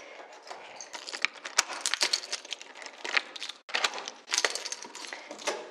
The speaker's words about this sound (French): Chers auditeurs, nous sommes euh, jeudi après-midi, il est presque 15h et je ferme la porte de la maison car aujourd'hui,